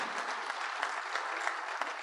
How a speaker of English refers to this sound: They worked very hard to be here and uh, get, give them another round of applause for being here. Thank you.